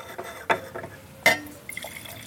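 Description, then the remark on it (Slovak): Red wine poured into a glass: a short splash of liquid filling, with two brighter glassy knocks and a faint trickle trailing off, no voices. “Červené víno, nech sa trošku Aha, to vyvetralo.”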